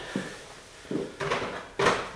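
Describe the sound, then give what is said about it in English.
A plastic soap dispenser drawer, released by pushing down a plastic lever inside it, is pulled completely out with a short series of hollow clicks and scraping knocks, four distinct bursts growing louder toward the end, with no voices. “And that lets you pull the soap drawer completely out.”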